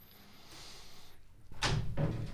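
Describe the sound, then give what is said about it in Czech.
A door opens as someone enters, with a couple of solid clunks of the latch and frame, one right after the other, following a moment of quiet hiss. “Ty jsi čekal na dveřma, nebo co?”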